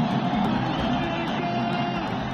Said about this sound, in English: Listen to that crowd. That's what they've been waiting for. Hosni Mubarak has gone.